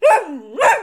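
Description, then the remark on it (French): A dog barks twice in quick succession, loud, each bark a sharp yelp that slides down into a brief whine before the second one. “Non, je n'ai pas dit un chien loup, j'ai dit un chien fou.”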